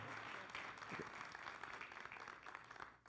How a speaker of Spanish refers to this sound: ¿Pueden darle un aplauso a ellos?